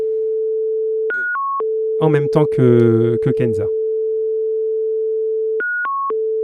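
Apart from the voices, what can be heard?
telephone call tone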